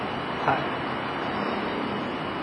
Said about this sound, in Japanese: 今朝の5時半に大英の前ですねここはあの人のいないまだ開店前の大英の前で喋、えー、っています意外とあの車通りが多くてうるさいかもしれないんですけど